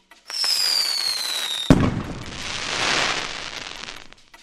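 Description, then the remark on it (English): A firework rocket whistles upward with a falling pitch, then bursts with a sharp bang, followed by a long, loud crackling sizzle that slowly fades away. “I heard watching fireworks.”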